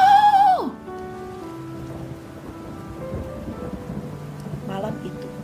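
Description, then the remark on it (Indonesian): Heavy rain hisses steadily while low thunder rumbles underneath, with lightning striking again and again and thunderclaps answering one another, following a short, loud tone that slides downward at the very start. “Rintik hujan berubah menjadi hujan deras. Awan berkabut, terlihat petir menyambar berkali-kali, dan suara geledek bersaut-sautan, membuat orang otomatis menutup telinganya.”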